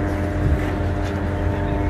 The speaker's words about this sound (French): Dans le ciel, les drones israéliens poursuivent leur ronde.